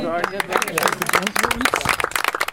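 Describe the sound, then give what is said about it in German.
An audience at the end of an evening nature talk breaks into steady, dense applause for a volunteer of the Naturschutzbund Wetterau, many hands clapping in a rapid, irregular patter at a fairly loud level, with a voice briefly audible underneath at the start. “Und Applaus, Anerkennung, Wertschätzung, das ist die einzige Währung, mit der ehrenamtliches Engagement bezahlt werden kann.”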